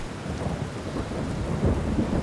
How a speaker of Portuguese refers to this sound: Durante uma tempestade, o rancheiro Mac Brazel e seus vizinhos houve uma explosão nas proximidades onde moravam, a algumas milhas de Roswell.